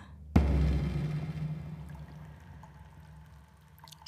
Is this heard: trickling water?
yes